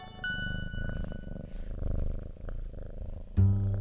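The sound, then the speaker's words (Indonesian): A pet cat called Nimrod purrs steadily, a low rumbling vibration that continues without pause, growing a little louder near the end. “Kucing itu kupanggil sesukaku.”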